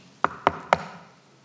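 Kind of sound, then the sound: impact, knocking on a door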